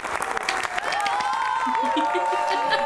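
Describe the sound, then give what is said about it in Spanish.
Steady crowd applause fills the whole clip, a dense crackle of many hands clapping, with voices calling out and whooping over it and rising pitched cheers toward the end. “Merece aplausos, pero no solamente por estar acá, por todo lo que se ha contado.”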